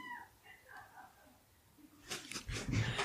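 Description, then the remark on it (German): Cats at home squeak and mew faintly in the background, wanting to be let outside, several thin rising cries in a row, followed by louder rustling, breathy noise near the end. “Dieses Quietschen, was hier im Hintergrund ist, sind die Katzen, die gerne raus wollen.”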